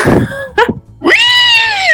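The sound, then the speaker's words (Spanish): A voice imitates a pig, starting with a rough, low grunt, then a short rising squeak and a long, loud, high-pitched squeal, with no talking. “Escucha, escucha el cochinazo que te acabas de echar, carro.”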